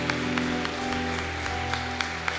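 An audience applauds Jesus steadily, a dense wash of clapping with sharper claps standing out over a sustained low musical hum.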